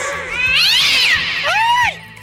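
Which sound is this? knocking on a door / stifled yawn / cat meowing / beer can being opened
cat meowing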